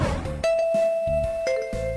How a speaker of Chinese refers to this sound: 伴着上课铃声，麋鹿老师走进了三年二班的教室里。